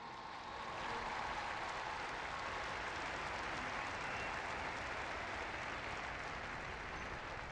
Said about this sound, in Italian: Ma un applauso ai catechisti, a tutti.